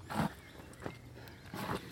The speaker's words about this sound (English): I hear footsteps.